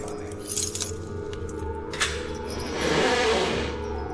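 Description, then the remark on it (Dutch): A man rattles his keys at a door as if he cannot find the right one; keys jingle and clink in short bursts, then rattle more continuously for a second or so over a steady low background hum. No one speaks. “Wat is een rammel met zijn sleutel alsof je hem niet kan vinden.”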